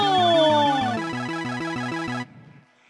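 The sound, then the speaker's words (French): A loud electronic mobile phone ringtone plays a rapid, bouncing two-note melody with a sliding tone at the start, then cuts off abruptly after about two seconds. “Tiens, Rebecca Chaillot, mon téléphone portable.”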